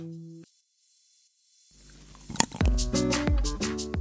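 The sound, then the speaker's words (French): A cacao pod being cut open with a blade, taking care not to cut the beans inside: after a brief quiet, the blade grinds in, then a run of sharp cracks and splitting crunches, fairly loud, with no talking. “Donc, on va essayer de cabosser, faire attention pour ne pas que coupe la fève.”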